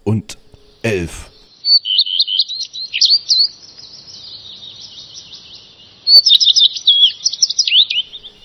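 After a brief low sound at the start, a songbird, the bird of the year 2011, sings a long, continuous warbling phrase of rapid high chirps and trills, clear, pausing briefly before resuming.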